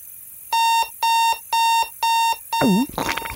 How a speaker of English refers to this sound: Corncob notices it's six fourteen a.m. and his alarm is about to go off